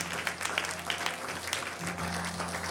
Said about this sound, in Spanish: Vamos a darle un aplauso al Señor mientras cantamos.